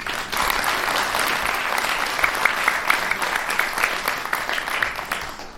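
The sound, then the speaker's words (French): A crowd claps steadily for several seconds for a person who has just given a testimony, a dense, even patter of many hands with sharper individual claps standing out, sustained at a fairly loud level throughout. “Donc ça a bien marché merci pour ton témoignage et je crois aussi qu'on peut l'applaudir.”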